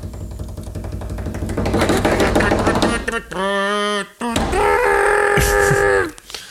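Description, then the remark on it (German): A fast, steady improvised drum roll tapped by hand on a surface for about three seconds, loud, followed by two long sustained tones from a voice, like a sung fanfare. “Dann mache ich jetzt einen Trommelwirbel.”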